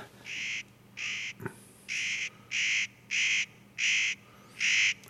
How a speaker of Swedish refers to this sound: Tänk om vi skulle lyssna lite på en, en, en nöt, nötkråka.